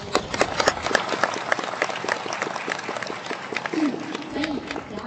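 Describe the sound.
An audience applauds steadily for about five seconds for the speaker's family, a dense, even patter of many hands clapping, with a brief voice rising faintly through the clapping near the end.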